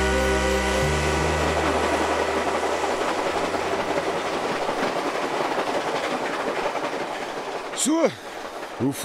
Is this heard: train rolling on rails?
yes